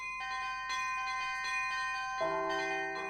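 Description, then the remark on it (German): Church bells ring in a steady sequence of strikes, each leaving a sustained, shimmering tone, with a deeper bell joining near the end. No voices, just the resonant peal. “Man schlägt ein komisch aussehendes Teil aus irgendeinem undefinierbaren Material an und es klingt.”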